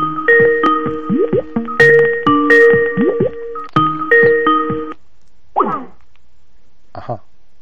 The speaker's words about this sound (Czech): No to je zvoní, to jsem myslel, to mi nezvonilo odpoledne, to jsem myslel zprovoznit.